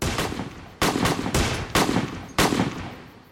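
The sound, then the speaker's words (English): Five loud handgun shots fired at a man in front of his squad car, in an irregular sequence, each a sharp crack followed by a booming, reverberant tail that fades before the next shot. No voices. “And then they just proceeded to fill him full of gunfire.”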